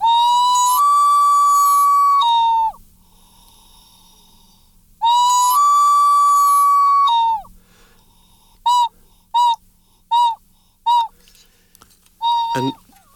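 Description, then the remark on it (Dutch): A ceramic whistling jug, tilted further, gives two long, steady warbling whistles, then four short quick chirps and a final brief trill, clear with no talking. “En als ik hem wat verder kantel, dan klinkt hij zo.”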